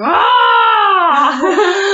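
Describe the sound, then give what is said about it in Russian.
A woman at home lets out a loud, sustained scream lasting about two seconds, pitched high and steady before wavering and dipping toward the end, with no talking around it. “И просто начала кричать просто.”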